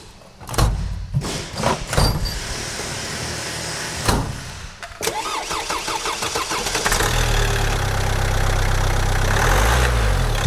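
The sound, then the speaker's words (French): A car engine cranks and catches after a few clicks and clunks, then settles into a steady idle that hums loudly for several seconds with no voices. “Après les avions, nous retournons sur un mode de transport plus terre à terre, la voiture.”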